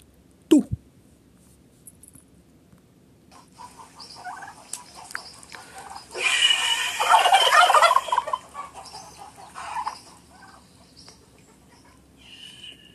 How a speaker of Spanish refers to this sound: Había una vez un pavo del Perú que en vez de decir yo, decía